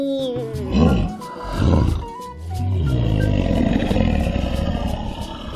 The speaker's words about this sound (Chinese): 狮子吼了一声：“嗷！”